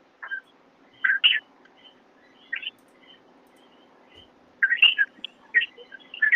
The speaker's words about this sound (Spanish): No está ahí porque estoy escuchando los coquillos.